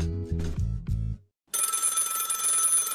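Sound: old-fashioned telephone bell ringing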